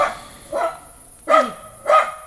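A dog barks four times in a loose, uneven rhythm, the sharp yips clear with short pauses between them and no talking.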